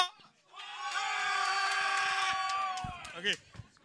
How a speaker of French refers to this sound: Vous êtes toutes des caves qui crient pour rien!